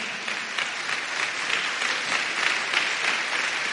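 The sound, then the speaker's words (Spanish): An audience claps their hands for the Lord in sustained, dense applause, steady and fairly loud throughout with no voices standing out, a continuous patter. “Dele palmas al Señor.”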